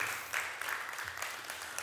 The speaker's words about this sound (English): Come on, let's give our worship team a good round of applause. They did great today.